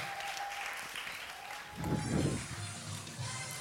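Sustained audience applause, a dense wash of many hands clapping at steady volume, swelling briefly midway with a few cheers or voices mixed in before settling back.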